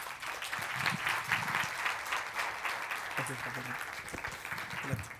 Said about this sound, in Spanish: Un aplauso, por favor.